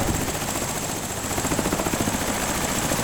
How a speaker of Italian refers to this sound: È un elicottero piccolo ma molto potente. Questo modello arriva anche sull'Everest.